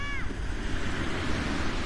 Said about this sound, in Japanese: 波の音がだいぶ入ってると思うんですけどまさに海辺にいましてそこからお届けしています